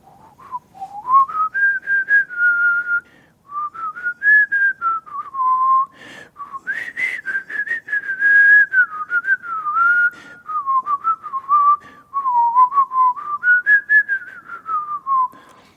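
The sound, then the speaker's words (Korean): A person whistles a long, slow melody alone, the intro of a song, the clear tone gliding up and down in sustained phrases with brief pauses, fairly loud for about fifteen seconds. “처음에 아주 긴 휘파람 그 으로 전주로 나오는데 이게 약간 이런, 이런 거야.”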